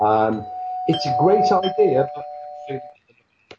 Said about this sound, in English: That's the doorbell. It means pizza for the dead is here.